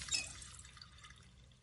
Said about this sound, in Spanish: Skyler friega una taza. Walt se acerca a la pila y cierra el grifo.